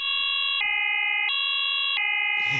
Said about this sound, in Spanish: Bueno, vamos a encender la alarma de spoilers.